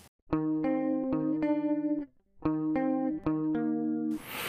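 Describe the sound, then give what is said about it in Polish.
Electric guitar plays two short phrases of chords and notes through a compressor accenting the attacks, a shimmering chorus in manual mode, and stereo tape-style echo with eighth-note repeats into a virtual Roland Jazz Chorus amp; sharp plucked attacks and sustained ringing tones, clear, ending in a burst of hiss. “Chorus, tutaj w trybie manualnym, bo najlepiej się sprawdza.”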